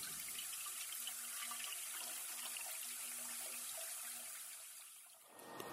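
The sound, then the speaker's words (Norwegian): Steady rushing water flows continuously for several seconds through crushed marble at the top of water treatment basins, a broad splash and gurgle that eases off near the end. No voices are heard. “Ja, her er jo som vi snakker om, altså vannet går jo gjennom den eh, knuste marmoren. Og dette er toppen av disse bassengene.”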